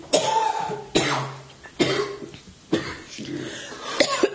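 A harsh coughing fit: five or so loud, raspy coughs in a row, spaced about a second apart, with rough, wheezy breathing dragging between them.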